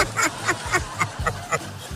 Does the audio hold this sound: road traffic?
no